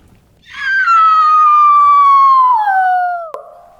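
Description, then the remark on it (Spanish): A loud, drawn-out wail like a dog's howl blended with a woman's anguished scream, heard inside a hall, holding steady then sliding lower in pitch for about three seconds before cutting off with a sharp click. “El sonido era parecido al aullido de un perro, combinado con el doloroso grito de una mujer.”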